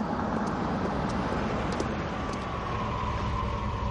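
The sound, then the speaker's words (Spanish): A sedan pulls up and comes to a stop in front of a university, a steady low engine rumble with broad road noise holding at an even level throughout, with no voices. “El sedán se detiene ante la universidad.”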